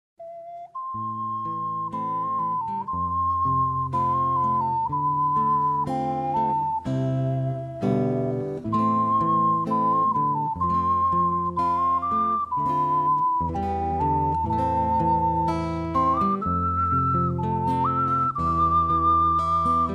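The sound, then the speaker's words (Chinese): An ocarina plays a gentle, slow lullaby melody in a hall, a soft song a mother used to sing, in pure, breathy tones, backed by a steady low chordal accompaniment that continues without pause at an even, moderate level. “于是，她走回男孩们在玩闹的大厅，拿起陶笛，吹奏出妈妈常常唱给自己听的温柔歌曲。”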